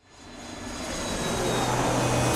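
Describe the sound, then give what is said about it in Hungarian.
Aircraft engine noise at an airport swells steadily from quiet to a loud, sustained roar with a low rumble underneath. No voices are heard. “Na és akkor jöjjön a repülőtéren az elmúlt napokban készült műsor első része.”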